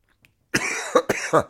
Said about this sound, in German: ich muss husten